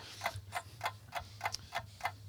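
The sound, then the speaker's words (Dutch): A small clock or timer, set for 20 seconds, ticks steadily, about three crisp ticks per second, fairly quiet, with a faint low hum underneath and no voices. “Misschien heb ik nog wel ergens een, eh, een klokje.”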